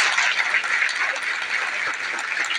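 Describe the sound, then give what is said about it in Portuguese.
Sustained applause from a crowd for the men and women of the security forces, a dense, steady wash of many hands clapping at once with no gaps, holding an even loudness throughout with no voices audible. “Queria uma salva de palmas aos homens e mulheres das forças de segurança.”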